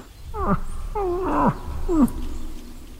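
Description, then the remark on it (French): A person imitates a moose call with three short, nasal, downward-sliding moans in quick succession, fairly loud over a low rumbling background, with no talking; a brief moose call made in lingering fog. “Puis à un moment donné, j'ai juste fait une petite vocalise d'ornial, tu sais, très, très succincte.”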